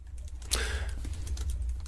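Soft clicking of someone typing on a computer keyboard, a few scattered keystrokes with one sharper tap, over a steady low hum, with no voices.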